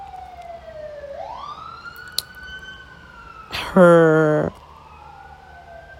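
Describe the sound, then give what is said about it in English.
An emergency vehicle siren wails outside in LA, its tone sweeping up and holding, interrupted by a loud, brief blaring horn blast near the end while a voice speaks faintly underneath. “Sorry if you hear any sirens in the background.”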